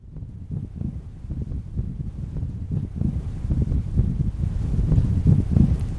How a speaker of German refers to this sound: Nach einigen Metern auf dem Skywalk fühlt sie, wie der Wind an ihr zerrt und es ist, als würde sie fliegen.